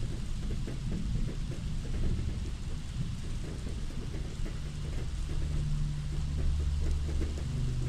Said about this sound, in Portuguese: escutando o som da chuva batendo na janela ao lado, retomamos a leitura.